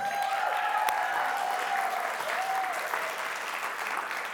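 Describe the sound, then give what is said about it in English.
An in-house audience applauds and cheers steadily throughout, making noise for online viewers, a dense wash of clapping with a few whistles and shouts rising above it, sustained at an even level from start to finish. “And those in house, let those know online that we love them. Make some noise for them.”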